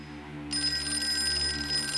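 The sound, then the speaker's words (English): A telephone bell starts ringing about halfway in, a sustained bright metallic trill that continues steadily to the end, moderately loud over a low background hum. “Let it go on ringing.”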